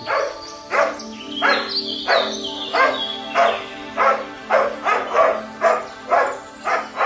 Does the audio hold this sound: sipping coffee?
no